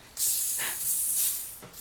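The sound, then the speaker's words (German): A bottle of homemade raspberry soda, made from raspberries, sugar and apple vinegar, fizzes and hisses steadily for about two seconds after opening, a loud rush of escaping gas with faint bubbling, and no voices. “Na super, wie es da raussprudelt und zischt.”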